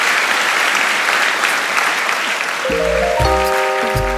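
Sustained applause from a sizeable audience thanking the speakers after a conversation, steady and fairly loud, with a few tonal musical notes entering near the end beneath the clapping.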